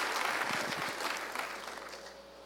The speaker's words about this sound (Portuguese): Ô, oh, gente, você pode aplaudir o Senhor Jesus Cristo por isso?